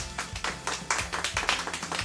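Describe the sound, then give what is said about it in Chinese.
A class of pupils clapping together to thank their class monitor, a dense, steady patter of many overlapping hand claps lasting about two seconds, with no one speaking. “大家掌声谢谢绵绵吧。”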